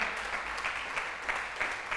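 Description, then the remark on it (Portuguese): An audience applauds steadily, a dense crackle of many hands clapping at once, holding at an even, moderate level with slight swells throughout and no voices over it. “Você podia dar um aplauso a isso aí?”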